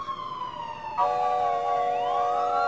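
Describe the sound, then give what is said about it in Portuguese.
A police car passes with its flashing lights on, its siren wailing steadily and loud, the pitch dropping as it goes by, then shifting to a different rising and falling tone, with faint road noise underneath. “Uma viatura da polícia passa com o giroflex ligado.”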